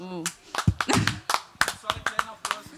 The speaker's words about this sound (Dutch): Wow, een klein applaus oh,